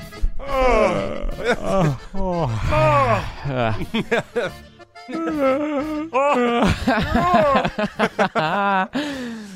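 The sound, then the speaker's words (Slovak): Several people yawn loudly and theatrically together on the Európa 2 morning radio show at 6:38, one drawn-out groaning yawn after another, sometimes overlapping, with brief pauses between them. “A teraz to si nezývol Spoločne s nami, takto 6.38, každý, kto počúva Európu, aby si mal zívnuť.”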